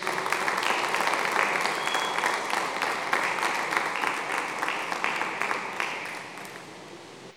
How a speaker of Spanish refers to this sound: Dele un aplauso al Señor Jesús.